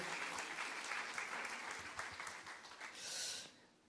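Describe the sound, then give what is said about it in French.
An audience applauds the team leaders who have just been introduced. The applause is a steady, dense crackle of many hands clapping at once, holding even for a few seconds before swelling briefly and then fading out. “Ouais, on peut les applaudir, ils font un super travail, merci à eux.”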